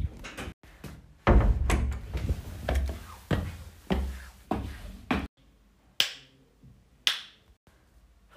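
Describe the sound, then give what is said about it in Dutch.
Sharp, woody thwacks of an axe as Vos the fox chops wood, a quick flurry of strikes followed by three slower, evenly spaced blows, each ringing briefly before fading. Fairly loud, with no voices. “Hij is hout aan het hakken.”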